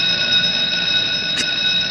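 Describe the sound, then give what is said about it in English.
A school bell rings nonstop for the whole two seconds, a loud, steady metallic jangle with piercing high overtones and no talking over it. “School bell.”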